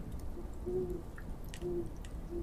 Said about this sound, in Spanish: el rechinar de esa puerta que no se había abierto en más de 10 años